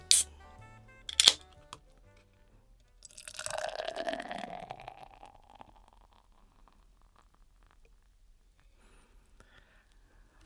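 Two sharp clicks up front, then Yebisu beer glugs and fizzes into a glass for a couple of seconds, fading to a quiet, faint crackle of settling foam. No one speaks.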